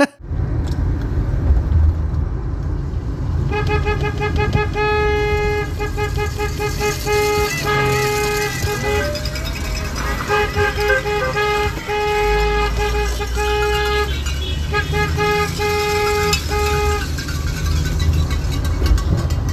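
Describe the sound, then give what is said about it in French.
A car horn honks loudly in long repeated blasts with short breaks, some notes shifting pitch like a tune, over a steady low rumble of engine and road noise, sounded on 6 November, the first day of the Front commun strike. “Alors, on a entendu un extrait de ton klaxon.”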